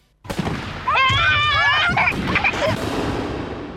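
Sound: fireworks explosions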